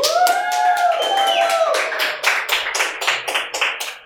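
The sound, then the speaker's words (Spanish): Thin audience applause: a modest scatter of hand claps, joined at the start by a few sustained cheers, then loosening into sparser individual claps that taper off over about four seconds. “Yo sé que hay más gente que ese aplauso.”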